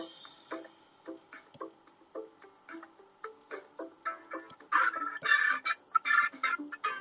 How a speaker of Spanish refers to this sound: Ay, pero ahí puse música al fondo como para a ver si se puede oír la cortina. ¿Se oye o no se oye? Sí, sí se escucha. Se escucha, pero está, está alegre.